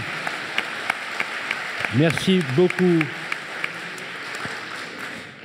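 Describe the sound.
Steady audience applause, a dense crackle of many hands clapping throughout, while a man briefly speaks over it midway before the clapping continues and slowly tapers off.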